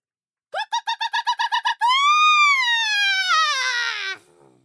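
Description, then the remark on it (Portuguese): A hen clucks loudly, as loud as she can: a quick run of about nine sharp clucks, then one long, drawn-out squawk that rises and slowly falls before cutting off. “A galinha se aprumou, encheu os pulmões e soltou mais alto cocó que já tinha dado na vida.”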